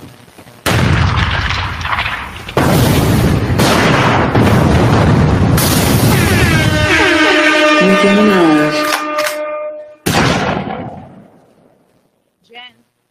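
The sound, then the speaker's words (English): Loud, booming explosion effects rumble continuously for about nine seconds, with heavy low-end blasts and crackling bursts, a shrill whining tone rising near the end before a final sharp blast fades out. “I don't hear my put my explosions on because we about to get busy.”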